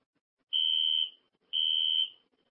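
A fire alarm sounds two loud, shrill, high-pitched beeps, each about half a second long and separated by a short pause, with no voices present.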